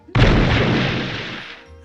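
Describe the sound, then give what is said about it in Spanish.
A single explosion sound effect, played as a demonstration of a live show's sound effects, bursts in abruptly and loudly, then a broad rumbling roar fades out over a second and a half, with no voices. “Por ejemplo, ahora va a sonar una explosión.”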